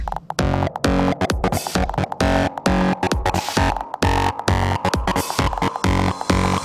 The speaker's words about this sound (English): Okay. Now, we need some fat distortion.